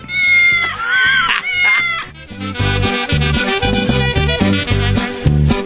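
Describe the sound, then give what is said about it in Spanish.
A single drawn-out cat meow rises and falls near the start, heard over upbeat music with a steady, punchy beat that carries on to the end. “Radio Pato. Y Radio Gato.”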